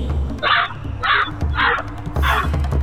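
A crow caws four times in a steady rhythm, each call a harsh, raspy squawk of similar length and loudness, over a faint low rumble.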